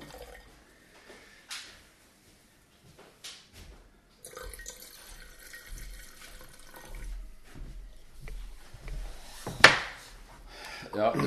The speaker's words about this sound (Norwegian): Du får ta det i glasset. Ja. Jeg fyller på litt, jeg.